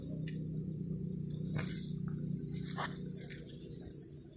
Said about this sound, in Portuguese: Ouviram? Esse é meu cachorrinho deitado no meu colo, mordendo o braço da cadeira. Que ele gosta de morder as coisas. Cachorrinho fica mordendo tudo. E tá aqui no meu colo.